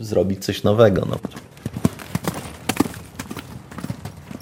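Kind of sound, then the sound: animal, horse hooves clip-clopping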